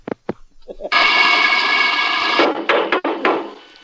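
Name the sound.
knocking on a door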